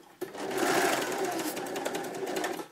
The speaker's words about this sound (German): werden jetzt hier erstmal so schließen und dann da mit der Nähmaschine weitermachen.